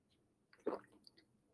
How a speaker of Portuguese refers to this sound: Por exemplo, se eu quiser beber água agora, eu vou aqui, fiz minha opção e.